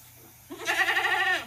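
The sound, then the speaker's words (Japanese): A single wavering bleat made by a human voice imitating a goat, demonstrating a vocal goat articulation technique done without lowering the breath pressure, with a rapid quivering vibrato lasting about a second, heard alone after a brief quiet moment. “えーと、ヤギはですね、えーと、とこの気圧を下げないで「めーっと”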